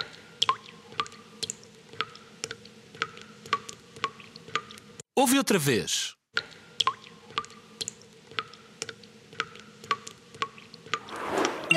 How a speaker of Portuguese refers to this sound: Será o som de gotas a cair? Será o som da chuva torrencial ou de um vento muito, muito forte? E a resposta correta é o som de gotas a cair.